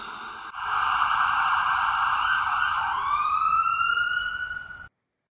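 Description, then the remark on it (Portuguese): A loud electronic siren sound effect, used as a spoiler alert, wails steadily with a sustained high tone that sweeps upward near the end, then cuts off abruptly after about five seconds. “Então tá bom editor, spoiler alert. Atenção, alerta de spoiler.”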